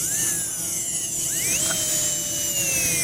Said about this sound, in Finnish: Siinä on, toi on mikromoottorin ohjausasema. Se on tämmöinen tämä itse kapistus. Tämä on niin kuin hammaslääkärin pora. Mulla on tuolla jalalla puoliin, tästä mä pystyn säätämään kierroksia 40 000 kierrokseen asti.